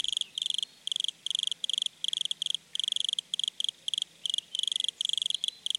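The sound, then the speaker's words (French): A wood cricket, a common forest species, chirps in Paris in rapid, steady bursts of high, buzzy trills, clear, with short pauses between each pulse train and a faint outdoor hush underneath. “Aujourd'hui, le grillon des bois.”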